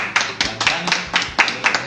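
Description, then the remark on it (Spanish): Hands clap in a quick, steady rhythm, around eight crisp, close claps over a couple of seconds, like a small round of applause from a few people. “yo creo que un aplauso”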